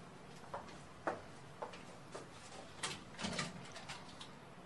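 A front door is opened, with a series of soft clicks and rattles from the latch and handle spread over a few seconds, fairly quiet, with no one speaking. The doorbell is not working.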